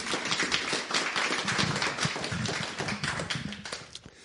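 An audience applauds steadily, a dense wash of many hands clapping at once with no pauses, sustained at an even moderate level for several seconds without any voices.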